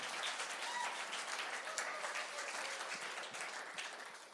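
A standing church audience gives the Lord a big clap, many hands clapping at once in a dense, continuous wash of sharp claps with no pauses, holding an even loudness throughout.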